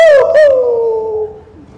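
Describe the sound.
A voice imitates a dog with one loud, drawn-out bark that trails into a falling howl-like whine over almost two seconds. No other sound accompanies it.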